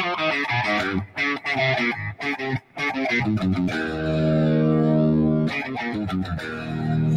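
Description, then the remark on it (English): A loud, distorted electric guitar riff blares through Vox amps, choppy stabbing chords giving way to a long sustained ringing chord before the riff kicks back in, with no voices. “When they hit that riff together, I mean, they're just banging out on Vox amps.”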